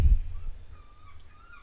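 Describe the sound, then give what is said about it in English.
A seagull calls a few times in short, drawn-out cries over a low background rumble with a brief thump at the start. “seagull is like yeah bitch yeah bitch”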